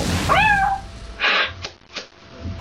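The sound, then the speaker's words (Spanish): A girl imitates a cat's meow, a single convincing rising-falling mew, followed by a few short breathy puffs and faint noises. “esta chica tiene una habilidad insólita para imitar muchos animales. Empieza con los clásicos perro, gato, ratón y grillo.”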